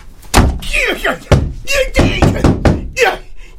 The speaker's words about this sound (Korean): 나는 방 안쪽 잠금키를 눌러넣고 문을 닫았다. 그 순간 할아버지가 어머니 손에서 빠져나와 비호같이 달려들며 방문을 걷어찼다.